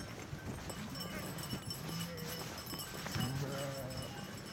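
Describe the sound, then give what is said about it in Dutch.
A flock of sheep runs through an open gate and inside, hooves clattering in a dense, irregular patter, with a few bleats rising over the busy shuffling noise. “Dat was niet te doen hè, om die schapen bij te houden. Of je moet echt gaan rennen.”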